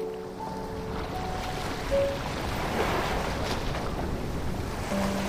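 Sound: waves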